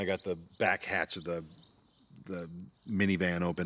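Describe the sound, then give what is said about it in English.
Faint, high bird chirps twitter in the background outdoors, most noticeable in a brief pause, while a person talks over them. “And um, if you hear the birds in the background,”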